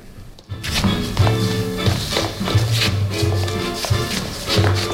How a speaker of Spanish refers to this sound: ahora estamos escuchando una clase de swing.